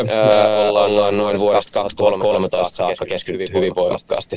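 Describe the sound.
A speaker talks over a remote connection, and the voice sounds echoey and smeared. It opens with a long, drawn-out hesitation sound, then moves into steady, continuous speech.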